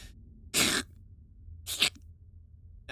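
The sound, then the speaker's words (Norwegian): Two short, wet mouth-made clicks, a voice imitating a well-oiled lock snapping shut, spaced about a second apart with a faint hissy spray, fairly loud against silence. “Et veldig, et veldig siklende klikk. Et veldig, veldig vått klikk til godt innolja lås.”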